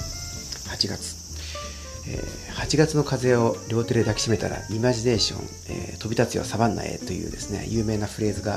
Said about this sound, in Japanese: えー、今聞こえてますでしょうかあこのスタジオのですね、窓の外では、えー、セミがこう鳴いておりますね。